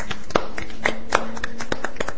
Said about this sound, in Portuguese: Palmas para Tristão e Isolda.